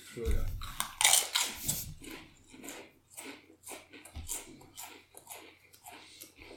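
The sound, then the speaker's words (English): Crunchy chewing of haunted ghost pepper chips, a quick series of crisp bites and crackles that gradually soften into steadier munching. “Like just chew it three times and swallow it.”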